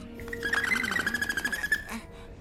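An eagle owl hoots in low, wavering calls, with a steady high whistling tone and rapid rhythmic pulsing above them, lasting about two seconds with no talking.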